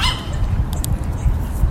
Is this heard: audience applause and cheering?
no